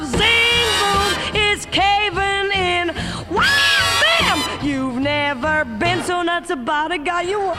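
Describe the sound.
A woman's voice belts and shrieks loudly over a pop band, with high sliding wails and sustained cries piercing through the music for several seconds.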